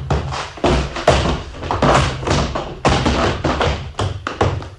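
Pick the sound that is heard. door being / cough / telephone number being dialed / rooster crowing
door being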